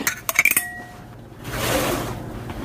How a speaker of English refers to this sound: So now I'm just gonna drain these green beans real quick.